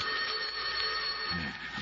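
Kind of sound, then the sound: household object, telephone ringing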